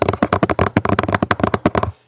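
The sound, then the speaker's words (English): Fingernails clack rapidly on a phone screen as someone angrily texts, a quick, slightly uneven burst of sharp taps, roughly twenty in two seconds, with no talking, then stopping abruptly. “My nails hitting the screen or hitting a keyboard or something, but that's the noise you hear.”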